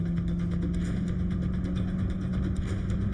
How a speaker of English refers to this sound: listen to the engine. Man. It sounds just like Fast and Furious Vin Diesel.